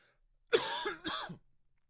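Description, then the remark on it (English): Two harsh coughs from one person, the second followed by a rough throat-clearing rasp, loud with quiet before and after. “I should probably edit all these coughs out, dude.”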